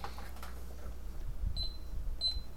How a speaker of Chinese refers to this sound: 啊，玉皇大帝跑去土地公门口按他的门铃，把土地公叫起来啊！